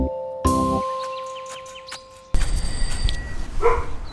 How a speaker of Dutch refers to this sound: Sorry, de hond blaft, maar hij is heel lief. Hij doet niks.